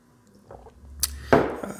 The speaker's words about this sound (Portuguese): Deixa eu tomar mais uma aguinha aqui.